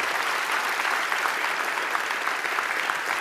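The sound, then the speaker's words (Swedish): An audience at a church gathering applauds steadily, a dense wash of many hands clapping at an even, sustained loudness with no voices standing out. “Amen, det är värt en applåd.”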